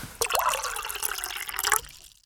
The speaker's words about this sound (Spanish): Me parece, Hernán, que es momento de tomar un poquito de agua, ¿querés? Dale.